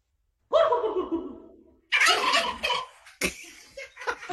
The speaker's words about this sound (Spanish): ¿Cuál es el sonido de un guajolote?